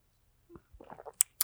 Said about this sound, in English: I'm going to take another sip of beer.